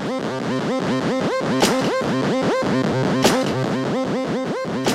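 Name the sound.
played pop song recording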